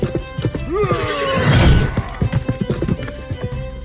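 A horse whinnies loudly with a rising then falling neigh, followed by a steady run of hooves clip-clopping on a hard surface, close and clear with no one talking.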